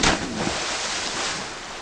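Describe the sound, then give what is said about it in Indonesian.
A branch snaps and a monkey falls into a river: a sudden, loud splash at the start, followed by a steady rush of churning, flowing river water that continues to the end, with no voices. “Ranting itu patah dan monyet terjatuh masuk ke dalam sungai.”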